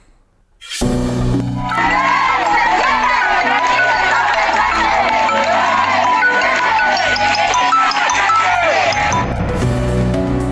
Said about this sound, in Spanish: Así, entre porras, aplausos, música y con exigencias de justicia, fue recibido este domingo en Tabasco, de donde era originario, el cuerpo del actor de 22 años, Octavio Ocaña.